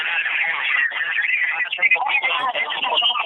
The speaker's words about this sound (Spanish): por favor, cuando haga la llamada, aléjate del dispositivo donde estés escuchando. Escúchanos por el teléfono solamente, por favor, porque se está retroalimentando el sonido y no podemos entender nada.